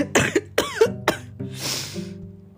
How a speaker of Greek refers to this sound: Τώρα βήχουμε και στα podcast, είναι και αυτό κάτι, κάτι προσδίδει.